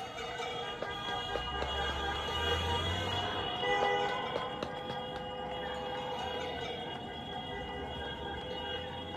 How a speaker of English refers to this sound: I quickly pulled out my phone to record the joyous celebration. And here is the audio I heard from my window when the news broke out.